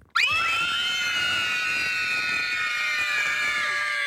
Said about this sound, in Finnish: Mä en löytänyt mitään hurraa, mä löysin vaan ton kiljahduksen tosta.